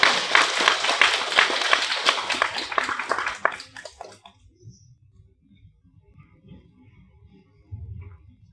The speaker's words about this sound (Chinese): 所以，让我们最后再一次以热烈的掌声感谢王老师的精彩的讲解。